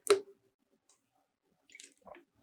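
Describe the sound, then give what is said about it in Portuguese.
A wet slurp as someone takes a quick sip of filtered tap water, followed after a pause by a couple of soft mouth and swallowing noises. No talking. “Oferecimento água da bica, água da bica, água mais confiável, filtrada que eu conheço.”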